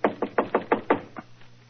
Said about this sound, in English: So, just to please you, I will knock on the door.